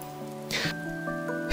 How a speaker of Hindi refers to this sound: यह बारिश अगर तुम्हें भी अपने साथ बहाकर ना ले जाए तो शायद तुमने इसका मज़ा लिया ही नहीं